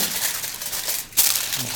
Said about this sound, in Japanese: シワシワな銅箔っていうのをまずは作ってほしいんですよ